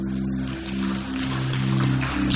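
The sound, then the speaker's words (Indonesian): An audience claps for God during a church sermon: a dense, steady wash of applause holding at an even loudness throughout, with a sustained low musical tone humming underneath. “Beri tepuk tangan buat Tuhan”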